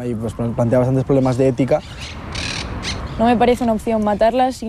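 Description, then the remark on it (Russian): Loud, harsh parrot squawks ring out in a city park in rapid, repeated bursts, break off briefly over a rushing background noise, then return in another noisy run of calls. “Это зверство убивать сразу всех попугаев.”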